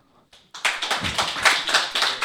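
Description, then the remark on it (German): A burst of applause: many hands clapping in a dense, rapid patter that starts abruptly after a brief quiet moment and holds steady and fairly loud until the end. “Zeigen mit Applaus.”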